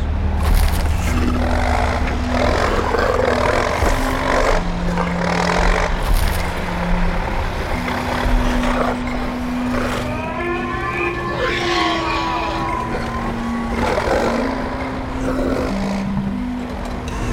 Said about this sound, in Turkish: Tam da baykuşun dediği gibi kocaman canavar makinalar ormanı yok etmek için hızla onlara doğru ilerlemektedir.